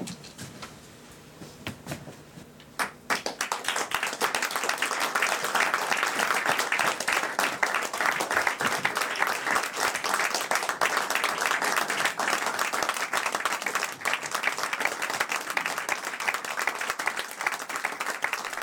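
A crowd bursts into sustained applause after a few quiet seconds, following a staged reading of the Correctiv investigation 'Geheimplan gegen Deutschland' on 28 January at the Kleiner Bühnenboden on Schillerstraße; a dense wash of many hands clapping that stays loud and steady to the end, with no talking.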